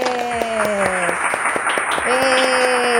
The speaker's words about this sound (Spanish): ¡Aplausos! Oigan, aplaudan, por favor.